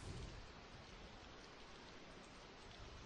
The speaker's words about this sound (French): J'écoute l'averse crépiter sur mon pare-brise pendant une dizaine de kilomètres, perdu dans mes pensées.